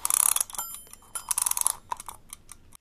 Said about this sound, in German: Dann ziehe ich mal den Wecker auf.